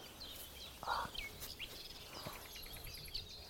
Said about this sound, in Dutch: Al die rolletjes en trillertjes, ja. dat is de bosrietzanger.